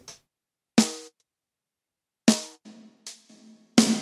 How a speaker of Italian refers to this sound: senti il rullante con e senza riverbero? Non reverberi.